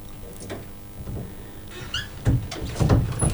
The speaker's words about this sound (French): Une porte qui grince.